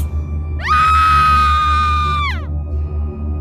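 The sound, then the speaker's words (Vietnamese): A woman lets out a loud, sustained scream of terror lasting about two seconds, sharply rising at the start and dropping away at the end, over a low rumbling background. “Trinh hét lớn Không, không thể nào”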